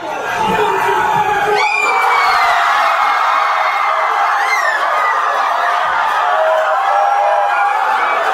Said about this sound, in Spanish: La ola de gritos y de emoción es tan grande que me saca lágrimas.